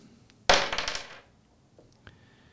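Dice tumble out of a cup onto a hard surface in a sudden loud clatter, rattling and bouncing for under a second before settling, followed by a faint click and quiet.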